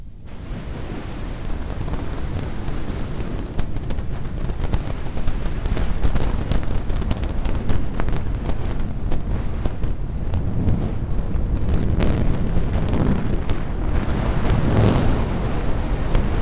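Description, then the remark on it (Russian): Recorded infrasound from the eruption of the Calbuco volcano in Chile on 22 April 2015, captured by a station more than 200 km from the volcano and sped up 400 times: a deep, continuous rumbling roar with a rough, thunder-like texture that holds steady and loud throughout, with no voices present. “Послушайте, например, как звучит извержение вулкана Кальбуко в Чили, которое произошло 22 апреля 2015 года.”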